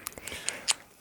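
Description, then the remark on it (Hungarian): A beer being opened: a few small metallic clicks, then a short, sharp crack with a brief burst of fizzing hiss, fairly quiet, with no talking. “Nyitok egy sört. Nyitok egy sört.”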